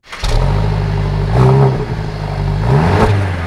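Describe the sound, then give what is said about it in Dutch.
A car engine cranks and catches, then settles into a loud rumble, with a couple of quick revs rising and falling in pitch. No voices are heard. “Mag ik het geluidje horen? Ik slinger hem aan.”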